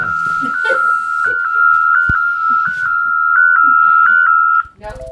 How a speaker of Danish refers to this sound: Alarmen kalder Finds kolleger ud til en patient, som skal hentes på Skyby sygehus